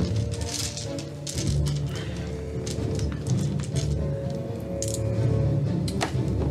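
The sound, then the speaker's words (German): Dice are rolled for Magic Missile damage in a game, rattling and clattering across a surface in a scattered series of sharp clicks and clinks spread over several seconds, over a steady low background hum with no talking. “Würfel mal Schaden aus.”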